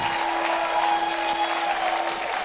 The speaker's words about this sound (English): Clap your hands and shout.